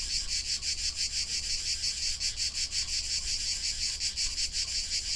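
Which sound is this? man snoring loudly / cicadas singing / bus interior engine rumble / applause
cicadas singing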